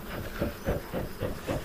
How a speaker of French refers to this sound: J'allume euh, l'enfumoir, je glisse euh, le papier, la feuille de journal allumée, j'active la flamme, la flamme vient, je mets de l'herbe sèche, je garde la flamme